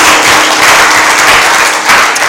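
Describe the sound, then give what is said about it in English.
Loud, sustained applause from a large crowd clapping for Jesus as they take their seats, many hands clapping at once in a dense, continuous wash of sound that fills the space without pause. “Why don't you clap for Jesus as you take your seat?”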